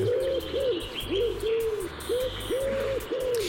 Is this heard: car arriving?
no